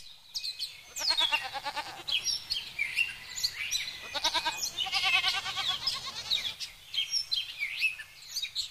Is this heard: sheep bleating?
yes